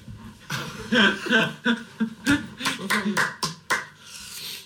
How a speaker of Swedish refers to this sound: Applåderar du? Eh, ja. Ja, Försöker få igång en takt.